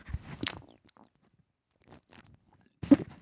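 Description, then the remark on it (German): Gulping as someone drinks beer: a wet sip and swallow at the start, a few faint throat sounds in the quiet middle, then one more sharp swallow at the end. No talking. “Warte mal, ich trinke mal mein Bier, ob man das hört.”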